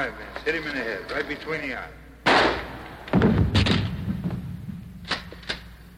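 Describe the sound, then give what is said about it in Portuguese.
Talking at the start gives way to a sudden loud gunshot, then a second heavier blast with a low rumbling tail, followed by a few faint sharp clicks, from the film Night of the Living Dead by George Romero. “Good shot. Okay, he's dead.”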